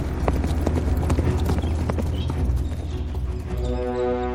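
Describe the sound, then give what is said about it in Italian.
Horses' hooves clip-clop steadily in a quick, uneven rhythm, fairly loud, with a low rumbling background and no talking. “Muoviamoci allora. Andate avanti cavalli con le donne bianche!”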